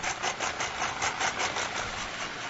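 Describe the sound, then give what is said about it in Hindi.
A tractor engine idles steadily, a continuous rough rumble with a faint pulsing throb and no other sounds. “कनी ट्रैक्टर हले हले गिरा के अवस्था में हम चल आयल छी”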